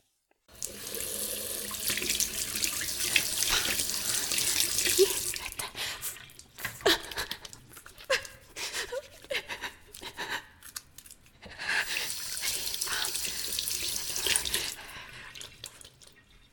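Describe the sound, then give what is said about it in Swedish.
Tap water gushes into a sink in a toilet as someone washes white powder off their fingers. It runs with a steady hiss for several seconds, stops for a stretch of splashing and small clinks, then runs again before shutting off. No one speaks. “Direkt när jag upptäckte det rusade jag in på toan och tvättade bort det i total chock.”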